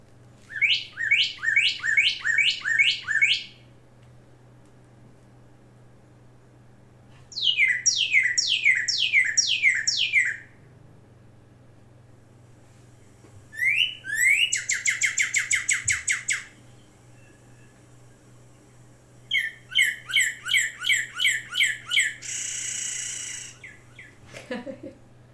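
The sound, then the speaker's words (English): A bird sings in four clear bursts of rapid, repeated downward-sweeping whistles, some with buzzy trills, separated by quiet pauses over a faint steady hum. Loud. “It's a bird tweeting.”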